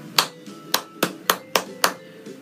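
Six sharp hand claps form a short musical rhythm in 4/4 time, played as a rhythmic ear-training example, their spacing uneven in a deliberate pattern, each crisp and bright with a quick decay, heard alone without talking.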